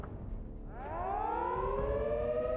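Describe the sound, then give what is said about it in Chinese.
An air raid siren on an embankment starts up after a moment of low rumble, its layered tones climbing in pitch and then holding a loud, steady wail over a constant low background noise. “堤防上的空袭警报响起”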